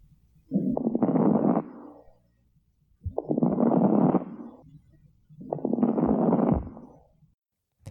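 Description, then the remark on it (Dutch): Lung crackles (crepitations) through a stethoscope, produced as smaller airways spring open: three muffled breath cycles, each a broad rushing swell peppered with fine rapid crackling pops, separated by brief quiet pauses, steady with no talking. “ja, je, je, hoort ze niet ehm, altijd zo prachtig als deze crepitaties, maar, eh, maar dat zijn crepitaties.”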